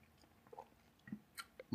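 Quiet chewing of a soft mouthful of doughnut, with a few irregular moist smacks and squelches spaced across the short moment, no talking.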